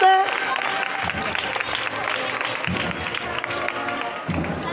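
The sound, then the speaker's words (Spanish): A large crowd breaks into sustained applause for the Santísimo Cristo de la Expiración procession float leaving at the Plaza de San Bartolomé in 2018, a dense, steady wash of many hands clapping at once, fairly loud and continuous, with a faint murmur of voices underneath. “Levantando el aplauso de todo el público.”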